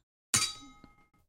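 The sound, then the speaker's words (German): Two glasses clink together once in a toast, bright, and a high ringing tone fades away over about a second. A faint second tap follows, with no voices. “Äh, wollen wir mal anstoßen?”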